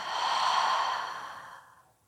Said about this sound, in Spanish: Esta vez contienes la respiración Exhala por tu boca y suelta.